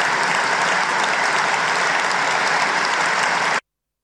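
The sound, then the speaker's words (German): Members of parliament stand and applaud, dense, steady applause from a large group, loud and continuous for about three and a half seconds, then cutting off abruptly. No voices stand out. “wir stehen auf, klar, wir reden, klatschen noch neun Minuten”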